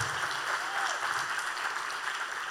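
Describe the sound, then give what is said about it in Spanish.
Audience applause for the pastors, in Miami: a steady, dense wash of many hands clapping at an even level throughout, with no voices standing out. “Denle un aplauso a sus pastores maravillosos.”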